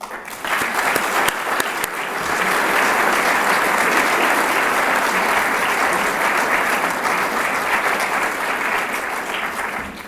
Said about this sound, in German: Und so können wir noch einmal alle zusammen die namentlich und nicht namentlich genannten Gäste mit dem erbetenen gemeinsamen Beifall begrüßen.